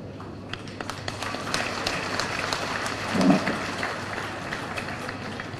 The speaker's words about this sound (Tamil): நாங்கள் பார்வையாளர்களாக இருந்து கரகோஷம் எழுப்ப வேண்டும்